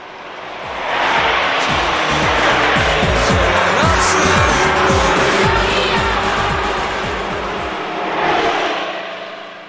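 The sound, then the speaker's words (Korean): Loud, continuous road roar of cars speeding by, with a dense engine and tire rush that swells in after a second, stays heavy, then fades and briefly surges again near the end. “차 소리가 좀 커서 속도 너무 내네요.”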